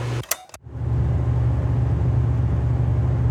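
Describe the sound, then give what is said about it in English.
An electric fan, the third one being compared, starts after a couple of brief clicks, then runs with a steady whirring hum and a low droning tone underneath, with no voices. “Okay, let's listen to fan number three.”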